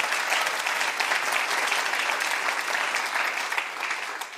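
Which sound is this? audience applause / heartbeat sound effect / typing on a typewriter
audience applause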